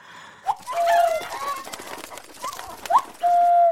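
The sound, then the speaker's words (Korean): A person mimics a chicken, letting out several squawky, warbling calls with quick upward yelps and a long held cluck-like tone at the end, set against faint background noise. “닭이죠, 닭. 닭 소리 낸 거죠?”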